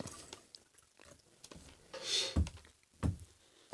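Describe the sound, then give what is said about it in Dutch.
Someone takes a quiet sip of water, a short airy slurp followed by a couple of soft gulping thuds, with no talking. “Moet ik dan even een slok water nemen?”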